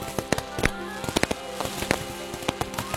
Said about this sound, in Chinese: 在鞭炮。叮叮当当的响声中，我带着两位门神回家了。